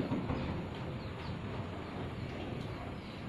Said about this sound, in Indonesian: selain ada suara kayak binatang-binatang malam ditemani rintik hujan ini ada suara mobil nih hmm gitu.